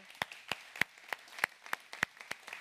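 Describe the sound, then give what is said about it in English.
An audience claps together in a steady, even rhythm to welcome first-time guests, sharp crisp claps landing about three times a second with a softer patter of scattered hands between them. No one speaks. “For our first time guests that are here in house, we'd like to welcome you with a hand clap.”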